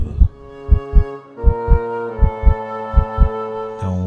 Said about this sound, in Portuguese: batimento cardíaco de todos os passageiros, claro.